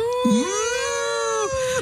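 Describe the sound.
A voice imitates a wolf howl: one long, steady, high-pitched "ooo" that swoops up at the start and holds for over a second before dropping off, loud and alone.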